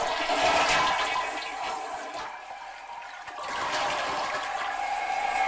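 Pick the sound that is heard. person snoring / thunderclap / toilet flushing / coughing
toilet flushing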